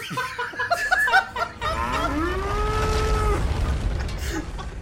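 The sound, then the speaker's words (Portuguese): A cow in a herd of cattle lets out one long, drawn-out moo over steady outdoor rumble, preceded by a few short, choppy vocal bursts; the low call sounds loud. “Eu vi uma boiada, sim, um monte de bois.”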